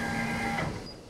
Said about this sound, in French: si c'est tout OK, elle va lancer la machine, elle va commencer à couper. Alors on visionne aussi euh, les placements qui sont sur l'écran et le couteau est parti. elle vérifie bien la longueur euh, où elle va couper.